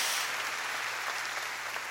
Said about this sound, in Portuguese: Dê uma salva de palmas ao meu Senhor.